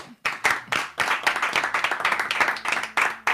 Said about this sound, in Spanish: Un aplauso, qué humilde.